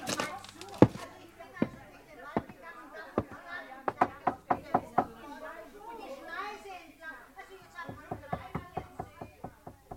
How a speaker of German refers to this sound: Das war ein schönes altes Fachwerkhaus, an dessen Haustür ich vergeblich geklopft hatte.